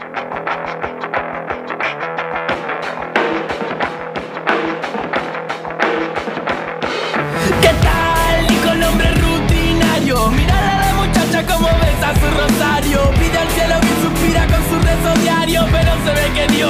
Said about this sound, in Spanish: escuchemos entonces eh, un poco de el tema nuevo que se llama …